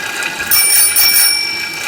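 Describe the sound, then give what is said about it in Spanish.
A bicycle bell rings twice in quick succession, bright and metallic, fairly loud, its shimmering tone lingering briefly with no voices. “Una bicicleta.”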